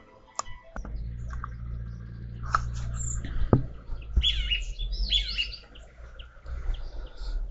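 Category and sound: bird, birdsong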